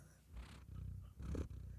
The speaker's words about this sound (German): Was ist denn das? Also ist die Katze. Ich hoffe, dass das die anderen auch hören. Ich weiß nicht, wie laut das Mikrofon dann ist, dieses Schnurren, weil das. Also ich höre es auf dem Kopfhörer extrem laut, aber.